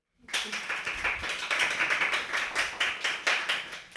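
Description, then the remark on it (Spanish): An audience breaks into applause to welcome a guest sociologist, a dense, steady wash of many hands clapping at a fairly loud level, starting suddenly and continuing without any voices over it. “para quien quiera un aplauso, por favor.”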